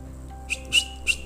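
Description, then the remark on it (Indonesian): A person gives three quick, sharp whistles in a row to call a waiter, short high chirps spaced unevenly, moderately loud, with no talking around them. “Terus siul-siul anjir gitu kayak anjir an, Siul-siul ya siul-siul gitulah ya lu ngerti lah maksud gue”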